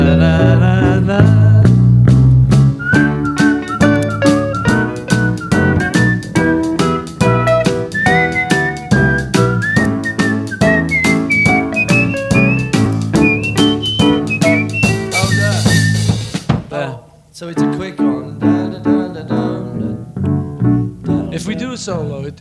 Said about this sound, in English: Just on the try bang, and do bang, like a real whistling solo because it is a bit much if it's those joke whistlings.